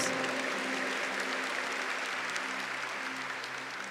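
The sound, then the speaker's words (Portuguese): An audience applauds after a reading from Genesis, a dense, continuous patter of many hands clapping steadily at an even loudness for several seconds, with no voices rising above it. “Força aplauda e você vai entender o porquê que você está aplaudindo.”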